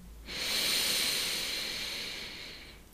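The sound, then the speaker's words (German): A single long, deep inhalation taken during a guided breathing exercise, a steady airy hiss that swells quickly and then slowly fades over about two and a half seconds, heard on its own with no talking. “Lass uns mal ganz tief gemeinsam einatmen.”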